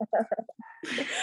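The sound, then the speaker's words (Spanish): Dogs bark in a quick run of short, sharp yelps, then a louder, noisier burst of barking with a rough, hissy edge. “Una disculpa por los perros, ¿verdad?”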